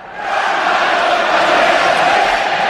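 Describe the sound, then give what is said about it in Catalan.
A loud, dense crowd roars and chants in unison in a football stadium with no athletics track during a Copa quarter-final between Mallorca and Girona, a sustained wall of voices that swells in within the first moment and holds steady throughout. “Per això sona així aquest estadi”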